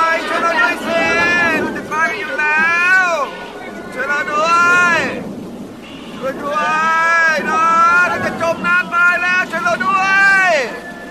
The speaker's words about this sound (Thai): ต้นไม้อาคารหินผาและพื้นโลกต่างถูกพายุโหมพัดกระหน่ำพังพินาศท่ามกลางเสียงวีดวิวของพายุรายนั้น เสียงฝูงชนที่ไม่สนใจต่ออำนาจของพระเจ้าก็ร้องโหยหวนเป็นที่น่าขนโคงสยองกล้า